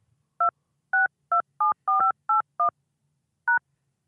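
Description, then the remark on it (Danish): Eight short telephone keypad tones are punched in as a callback phone number is entered into an automated phone service, a quick steady run of beeps followed by one last tone after a brief pause, with no one speaking. “Indtast det telefonnummer, du ønsker at blive ringet op på, og tast firkant.”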